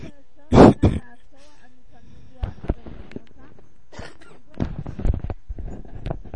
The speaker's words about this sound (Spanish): perdón, perdón, es que me ganó la tos. Y no es que la esté haciendo de tos, aclaro.